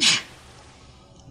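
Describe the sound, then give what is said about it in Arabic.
A single sharp sneeze bursts out at the start, loud, then fades into quiet for the rest of the moment. “رحمك الله”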